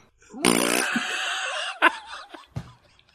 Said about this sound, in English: I, I love that this show is not above a, just a good old fashioned fart sound.